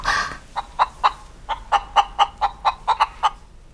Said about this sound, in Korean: 아우 너그 닭소리 좀 어떻게 해보아라.